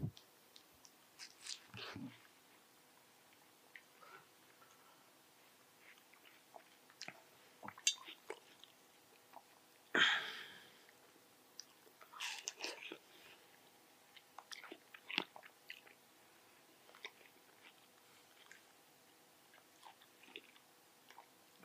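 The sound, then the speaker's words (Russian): Wet chewing and crunchy bites into juicy watermelon, with irregular squishy smacks and a louder bite near the middle, no talking. “Место, где я могу просто сидеть и есть арбуз.”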